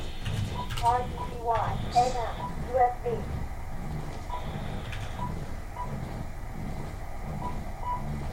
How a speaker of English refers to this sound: I'm not used to hearing an Icom beat because my Icom HF rig doesn't beep.